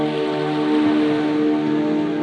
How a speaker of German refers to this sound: Sie hören das beruhigende Rauschen des Meeres.